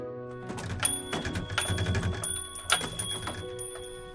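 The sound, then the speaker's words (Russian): A small metal door bell on a hospital's glass door jingles as a boy pushes the door, which does not open: a cluster of quick bright clinks over about four seconds, with high ringing tones that linger between strikes. No one speaks. “Послышался лишь звон металлического колокольчика, но дверь с места не сдвинулась.”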